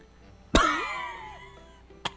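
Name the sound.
cough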